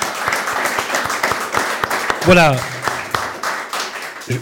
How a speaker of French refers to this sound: Applaudissements